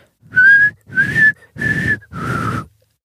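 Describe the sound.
A person whistles a short four-note signal tune, each note breathy and airy with brief pauses between them, and no talking.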